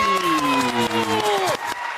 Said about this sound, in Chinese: 哦，掌声鼓励。